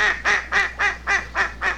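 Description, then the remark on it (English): A hen mallard duck gives its welcoming call, quacking six times in quick, steady succession, each call loud, nasal and raspy, with no voices around it. “I guess it's a real duck. It sound, Sounds like a real one.”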